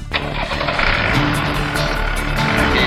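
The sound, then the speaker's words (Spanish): The diesel engine of a Rastrojero pickup truck is started with the ignition key, kicks in abruptly and runs with a loud, steady, rough clatter for the whole stretch with no talking. “Bueno, acá estamos por poner en marcha el rastrojero.”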